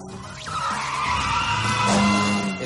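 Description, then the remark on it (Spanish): A Mini car skids during a film chase scene and hits something, with a loud, sustained tire squeal, a high screeching whine held over engine rumble for a couple of seconds, intense throughout. “No, aquí el coche derrapa e impacta contra algo.”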